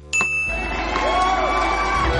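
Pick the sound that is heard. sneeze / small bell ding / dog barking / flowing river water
small bell ding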